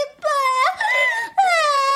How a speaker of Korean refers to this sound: 아, 저 순찰 도는데 바닥에 앉아가 야들이 막 울고 있더라고요. 바람 들었나? 바람이 났나? 아이고. 에이, 우리 어린 공주님들이 왜 울고 있었을까?